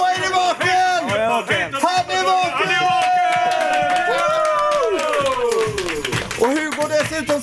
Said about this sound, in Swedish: Nej, kom igen. Kan vi få med allihopa så klappar vi igång också nu.